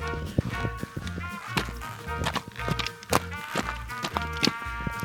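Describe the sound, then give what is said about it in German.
Steady footsteps crunch along an outdoor hiking trail at a regular walking pace, fairly loud, with no voices. “Wollt ihr mal hören, wie der Wanderweg aktuell klingt?”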